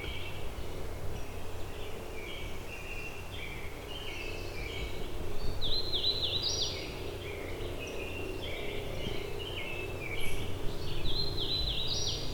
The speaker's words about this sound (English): an American robin here. I just saw it fly across, it got much closer, so I'm gonna see if I can get eyes on this bird.